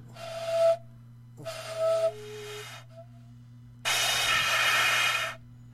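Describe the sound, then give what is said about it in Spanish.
Three breathy bursts of air blown into a quena that fails to sound, mostly hissing noise with only a faint, wavering trace of pitch in the first two and none in the last, longer one, over a low steady hum. “Soplas y no suena.”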